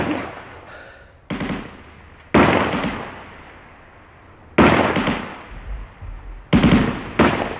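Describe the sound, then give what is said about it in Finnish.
Sharp, loud gunshots crack out in irregular clusters of two or three during a shootout, each followed by a long echoing decay, with no voices present. “Mutta pystymme ehkä pitämään puoliimme täällä katolla niin kauan, että naapurit hermostuvat ammuskeluun ja hälyttävät poliisin.”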